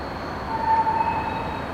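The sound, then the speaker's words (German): A steady rumble of a train moving through Karlsruhe main station in Germany, with a thin high metallic squeal briefly rising over the broad noise, with no voices. “Direkt am Karlsruher Hauptbahnhof liegt das Gebäude von Design Offices.”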